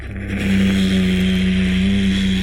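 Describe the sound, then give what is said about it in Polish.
A heavy stone wall of a dark niche grinds open, sliding apart to leave a passage to a corridor, with a loud, continuous rumbling drone and a steady low pulsing underneath, lasting the whole moment without any voices. “W pewnym momencie słyszy za swoimi zetlami, jakby kamień się ruszał.”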